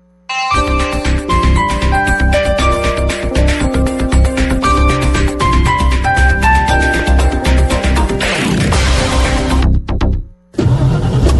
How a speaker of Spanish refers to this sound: qué bien suena el motor de su carro. Se nota que usted sí sabe cuidarlo, ¿no?